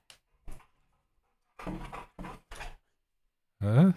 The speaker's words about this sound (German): Ich höre Hundegeräusche. Der Hund ist reingerannt. Okay. Der Hund ist reingerannt und ist, er ist, er ist gerade richtig wild. Okay. Er freut sich sehr.